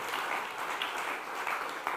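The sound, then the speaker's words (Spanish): A crowd applauds steadily, many hands clapping at once in a dense, continuous wash of sound at moderate loudness with no break. “Denle un aplauso, Señor.”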